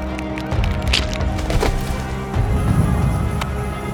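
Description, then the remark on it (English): A body contorts and shatters: a dense run of cracking and splintering, like something brittle twisting and shattering, with several sharp snaps over a low, crunching rumble. Loud, with no voices. “The officer contorted and shattered.”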